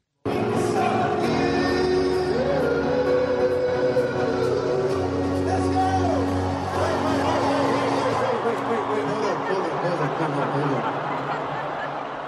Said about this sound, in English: So there's some confused reactions there from the crowd, some laughter. You could also hear almost like the swell and the crescendo of anticipation. Everyone was waiting for this moment.